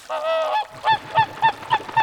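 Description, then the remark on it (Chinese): A flock of white swans call as they fly low over a large lake: a long nasal honk, then five shorter, evenly spaced honks in a steady rhythm, each paired with a soft low thump; no voices are heard. “他看见一群美丽又优雅的天鹅，正展开雪白的翅膀，贴紧着湖面，慢慢的往蓝天白云飞过去。”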